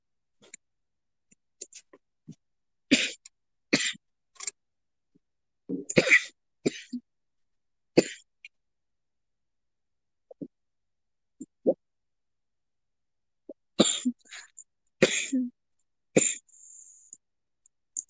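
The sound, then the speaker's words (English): A prolonged coughing fit after taking a hit from a dab pen: harsh, hacking coughs coming in uneven clusters with short pauses and a throat-clearing in between, fairly loud, with no talking. “I'm so sorry you guys have to listen to me die because I don't know how to take a fucking hit out of my dab pen.”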